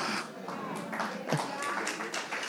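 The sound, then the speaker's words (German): A crowd claps steadily, a dense patter of many hands at moderate loudness, with a voice faintly audible beneath the applause. “Es ist immer, wenn die Leute klatschen, bin ich immer vorsichtig.”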